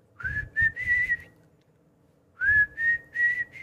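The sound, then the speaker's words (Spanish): A whistled melody introducing a song plays in two short phrases separated by a pause, each made of a few sustained, clear notes with slight pitch slides, over soft low-pitched rhythmic accompaniment. “estaba prácticamente introducido por un silbido”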